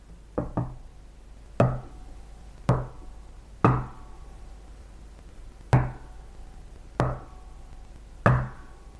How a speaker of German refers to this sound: Genau, Klopfzeichen. Und zwar immer wieder hörten sie die und man nahm an, dass es die Klopfzeichen eines fahrenden Händlers sind, die man in ihrem Haus hören konnte.